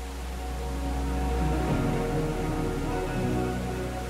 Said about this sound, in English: You've been hearing the rain vortex, and at 40 meters, the world's tallest indoor waterfall. Here is Jewel Changi Airport